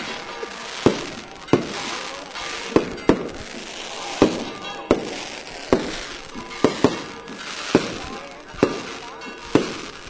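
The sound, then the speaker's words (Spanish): Fireworks over the marsh at El Rocío on a summer night during the Pentecost Monday pilgrimage bang repeatedly at an irregular, fairly quick pace, each sharp pop standing out over a dense crackling wash that fills the background without letting up. “Siguen los fuegos artificiales en el aquí en la marisma.”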